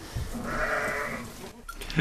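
A goat named Anet bleats in a long, wavering call lasting about a second, answering after being called by name, followed by faint rustling and a brief soft noise at the end.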